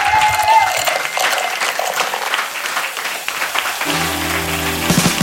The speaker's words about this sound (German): Weil alle, die hier sind, sind nochmal richtig laut für euch. Danke, dass ihr heute hier wart. Applaus